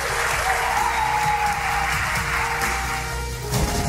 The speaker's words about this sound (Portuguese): vamos dar um aplauso para a família paranormal.